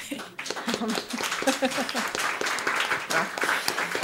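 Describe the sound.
Steady applause from an audience: dense, crackling claps that keep up for about four seconds at a fairly even loudness, with a few voices mixed in underneath.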